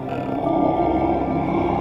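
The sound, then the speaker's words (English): A deep, rough growl from an unseen monster in a film scene rumbles steadily for about two seconds, holding an even loudness. It sounds far off, with a slight cave-like echo and no talking over it. “Then we hear the sound of an unseen creature growling in the distance.”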